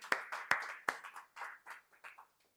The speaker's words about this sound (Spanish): esta ofrenda de, de, palmas va para nuestro Señor, porque para Él siempre hemos dicho la gloria y la honra.